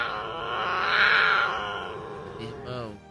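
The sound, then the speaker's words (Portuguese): A man's voice imitates a jaguar's growl: one drawn-out, rough, snarling cry, loud, swelling then trailing off into a short breathy sound. “Só que ele entrando mata dentro, com aquela coragem, com aquele fervor, do nada, cara, do nada, ele escutou uma onça miar.”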